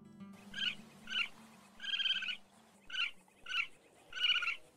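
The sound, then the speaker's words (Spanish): Raccoons chittering in six quavering, high-pitched trills, two short calls then a longer one, repeated twice. The calls are quiet, over a faint low hum, with no talking. “Mapaches, muy bien.”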